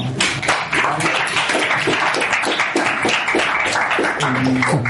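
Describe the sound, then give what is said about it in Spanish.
Sustained audience applause, a dense, steady crackle of many hands clapping at full volume throughout, with a few faint voices mixed in toward the end. “Bueno, un aplauso.”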